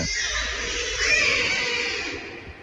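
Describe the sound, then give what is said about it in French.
A Bengal tiger cub, one of quadruplets in the nursery of the Fréjus zoo in France, cries while being bottle-fed by its keeper, in one long, shrill, raspy wail that holds steady for about three seconds, swelling slightly midway before easing off, with no talking over it. “Il pleure parce que je donne le biberon, mais comme il avale tellement vite, il s'entoure pas.”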